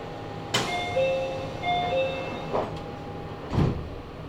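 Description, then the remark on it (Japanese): Doors of a local train bound for Chiryu via Takahama and Kariya slide shut with a few firm thuds, the last one loudest, while a steady electronic chime tone sounds over the low rumble of the waiting carriage. “閉めますご注意ください”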